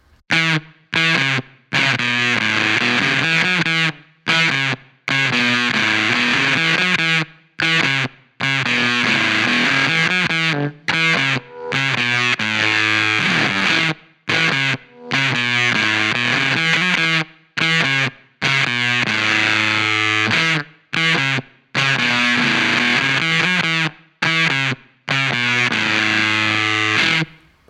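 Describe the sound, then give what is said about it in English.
Electric guitar played through a Rush Pepbox fuzz pedal, thick and saturated, ringing out loud sustained chords separated by brief silent breaks, with no voices over it. “going to keep the same guitar and amplifier and the pep box, but now I'm going to place an earth drive after it”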